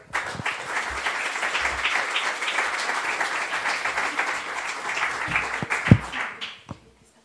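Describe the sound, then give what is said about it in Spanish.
Loud audience applause for a man called up to read his poem at an event for mothers fighting for the memory of stolen babies, a dense steady wash of many hands clapping for several seconds, with a few sharper individual claps near the end before it fades out. “Pido un fuerte aplauso para él.”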